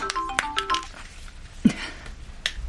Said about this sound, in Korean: 무당님, 고영사님한테 전화가 오는데 아마 무당님 바꿔달라고. 이리 주세요.